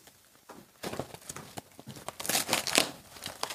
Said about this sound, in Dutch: Oké, doos. Doos is er bijna af, karton is er bijna af.